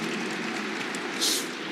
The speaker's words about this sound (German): Ich weiß nicht, soll ich den Beifall als Aufmunterung ähm, oder naja, können wir drüber reden.